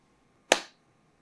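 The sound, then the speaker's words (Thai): A single sharp hand clap, someone answering yes by clapping once, rings out in an otherwise quiet space, crisp, with a brief fading tail and no voices. “นั่นหนึ่งครั้ง เขาตอบว่าใช่ใช่ไหมนั่นเป็นคน ภรรยาก็มองสามีแล้วก็พยักหน้ายืนยันว่า ได้ยินเหมือนกันได้ยินเสียงตบมือหนึ่งครั้ง”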